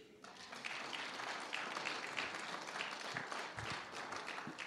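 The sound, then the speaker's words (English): A crowd applauds a man and his family steadily, many hands clapping in a dense, bright wash of sound that holds at an even level for several seconds without any talking. “Let's give him a clap.”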